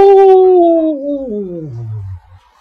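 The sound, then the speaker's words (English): A single loud wolf howl, apparently voiced by a person imitating it: a long tone that starts high and slides steadily downward for about two seconds before breaking off. “Then she heard a deep growl and a, an ear splitting howl.”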